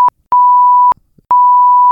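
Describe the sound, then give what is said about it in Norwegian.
A loud, steady censor bleep covering a spoken name: a quick blip followed by two longer sustained tones, each cut off abruptly with brief gaps of near-silence between them and no voice audible. “Eller må dette pipes? Vi piper alle gangene vi sier uh,”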